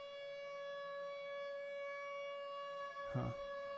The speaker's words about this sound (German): Und seitdem schrecke ich fürchterlich bei diesen Sirenen auf. Ihr kennt sie vielleicht. Diese Katastrophenschutzsirenen.